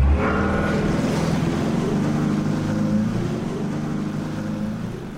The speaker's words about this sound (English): They did as told, and Pierre put the boat in gear.